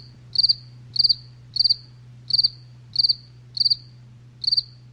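A bug chirps in a steady rhythm, seven evenly spaced high-pitched chirps, each a quick burst of a few pulses, sounding clear over a faint low hum.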